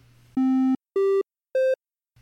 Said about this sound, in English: old computers frequently cheated and they just did something called a triangle wave